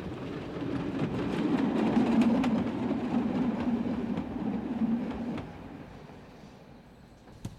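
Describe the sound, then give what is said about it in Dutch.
A train rumbles past the square in front of Muidenpoort station on a drizzly afternoon, where about 50 people gather, with a steady low roar and faint clattering of wheels, swelling in the first seconds, holding, then dropping off sharply and fading into quieter outdoor ambience. “Het is een druilerige middag en op het plein voor het Muidenpoortstation verzamelen zich zo'n 50 personen om de kristalnacht en de deportaties van Joden te herdenken.”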